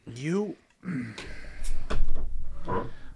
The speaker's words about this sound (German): Äh, zieh mal raus den Korken, ne? Und lass mal sprudeln das Bier.